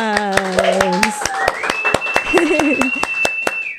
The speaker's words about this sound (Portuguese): Uma salva de palmas.